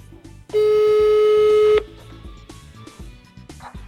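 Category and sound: signal or alarm, telephone dialing tones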